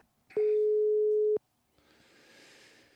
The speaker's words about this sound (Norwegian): Da har vi lyd, i hvert fall. Det ringer, det ringer, det ringer.